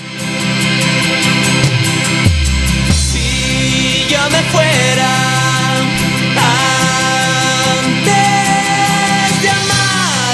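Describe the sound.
A rock band plays a recorded cover song, loud and steady throughout, with a lead singer's vocals riding over dense guitars, bass and drums.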